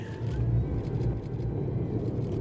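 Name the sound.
rocket engines roaring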